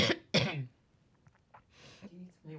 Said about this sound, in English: I was just like, I'm not gonna make it through the next 15 minutes unless I cough.